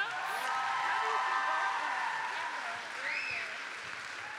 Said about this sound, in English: All right, one more hand of applause, round of applause for our musician and keynote.